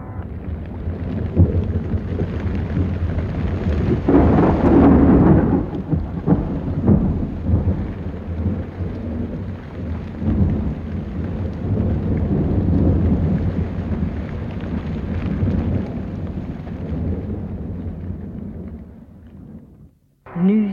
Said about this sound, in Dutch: Als iedereen tot de allerlaatste droog aan de overkant is gekomen, stort de watermuur als een spattende zee donderend naar beneden.